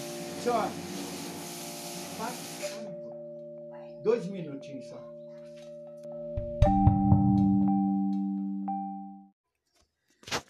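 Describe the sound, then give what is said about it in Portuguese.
A car-wash pressure washer machine, switched on by a woman responsible for cleaning, drones with a steady, tonal motor hum and a burst of hissy spray at the start, continuing for several seconds before shutting off, while people talk over it. “É, tinha uma moça lá, que responsável pela limpeza, que ligou aquelas máquinas de lavar carro e aí deu esse barulhinho aí, né?”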